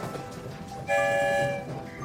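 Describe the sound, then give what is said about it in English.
A train rumbles along steadily, and a loud horn blast with stacked harmonic tones sounds for about half a second midway before the rolling noise continues underneath. “I wonder where the story train will lead us this time.”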